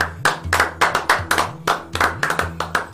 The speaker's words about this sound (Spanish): Un aplauso.